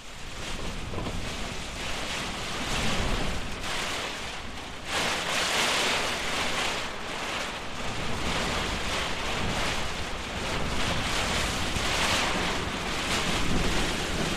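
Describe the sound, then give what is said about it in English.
A severe mountain storm roars steadily for the whole stretch, heavy rain hissing and strong wind buffeting the microphone in loud, surging gusts, with no voices. “but not until we had waited out a severe storm, which made us very glad to be in a warm, dry hut and we just hoped that the newly fledged rock wren family we'd met had found a good place to shelter from the rain.”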